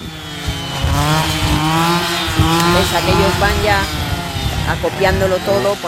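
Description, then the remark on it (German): Chainsaws cut through holm oak branches near Villanueva de Padillo, pruning the tree crowns rather than felling them, to keep the gap between branches and ground as large as possible; their engines drone loudly and steadily, the buzzing pitch rising and dipping as the blades bite and rev throughout. “Mit Motorsägen bearbeiten sie unter anderem Steineichen.”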